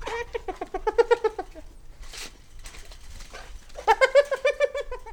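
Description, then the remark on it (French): Hyena laughing calls: two bursts of rapid, high-pitched staccato giggles, each a quick run of yelping notes, separated by a pause with a brief breathy rasp in between. “peut faire l'hypothèse que les hyènes frustrées, donc n'ont pas accès à la nourriture, rigolent, et que les autres hyènes, les dominantes, qui elles sont en train de se nourrir, ont intérêt à calmer les autres pour éviter de voir les lions appliquer.”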